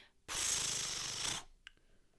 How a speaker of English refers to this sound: Um, let me give a ceremonial page turn noise for last week's issues.